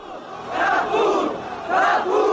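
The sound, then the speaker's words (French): A large crowd on the Place de la Bastille shouts and roars together at the storming of the Bastille on 14 July 1789, a dense wall of voices that swells loudly twice with no single clear speaker standing out. “une place de la Bastille, noire de monde, en ce 14 juillet 1789.”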